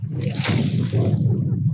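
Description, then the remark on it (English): Water sloshing and churning as a person in goggles, with a net tied to their arm, lowers off a boat into knee-high sea water to collect eelgrass, a steady, splashy wash of liquid lasting the whole moment with no talking. “we lowered ourselves off the boat. Jake's going in.”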